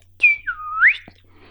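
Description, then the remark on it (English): A person whistles one sliding call imitating a great horned owl to call the owl, pitch dipping then swooping back up. The whistle is clear and alone, with no talking. “to Great Horned Owl. And the Great Horned Owl came and perched nearby.”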